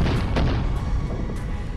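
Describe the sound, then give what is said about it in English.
A loud aircraft sonic boom, a deep rolling rumble with a couple of sharp cracks near the start, sustained for about two seconds with no voices. “But if the aircraft is moving more quickly and the two sonic booms are separated by more than a tenth of a second, we'll hear it as two separate booms.”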